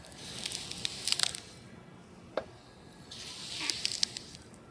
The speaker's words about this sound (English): Now let's listen to the correct way to slice scallions. This is a more horizontal, slow, smooth slicing instead of a chopping.